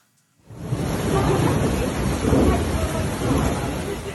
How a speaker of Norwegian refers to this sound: Himmelens porter åpner seg. Vann stiger langt oppover husveggene og forårsaker store ødeleggelser.